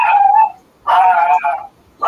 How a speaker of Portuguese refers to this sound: cachorro.